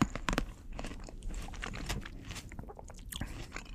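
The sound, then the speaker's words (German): Wet chewing of grapes by a person, with repeated crunchy bites and squishy mastication sounds in an irregular rhythm, loud with no talking. “Das sind übrigens, liebe Hörerinnen und Hörer, Weintrauben, die … hier ist.”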